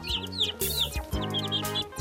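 Chickens cluck in a quick series of short, throaty bursts, with higher chirping calls layered over them. The sound is fairly loud, with no one talking.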